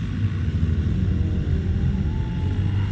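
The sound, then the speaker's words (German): A steady low humming drone fills the background, continuous and even like rushing waves, with heavy rumble in the bass and no voices. “Ein durchgehender Ton, der an das Rauschen von Wellen erinnert.”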